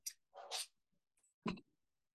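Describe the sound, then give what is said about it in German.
A few short, soft noises from a small puppy waking up, small whines and a snuffly yelp, come in brief bursts with quiet gaps between them and no talking. “das, wenn ihr das gerade im Hintergrund hört, das ist auch übrigens der kleine Welpe, der gerade wach wird.”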